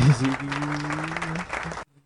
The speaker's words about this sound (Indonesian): mantap aja kan tepuk tangan lagi kan